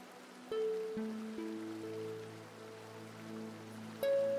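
Steady, soft rainfall hisses continuously in the background while gentle sustained musical tones ring out over it every second or so. No one speaks.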